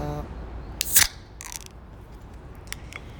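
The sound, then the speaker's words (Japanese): A beer can pops open on a balcony at dawn, around 6 a.m. in fine weather, with a sharp metallic crack and a brief fizzing hiss, followed by a softer second snap and a few faint clicks against quiet background noise. “えー、朝焼けにビールの開封音が響き当たりましたね乾杯”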